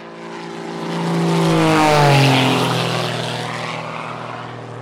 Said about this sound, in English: The plane's going to come back by, and we're going to take right where we left off.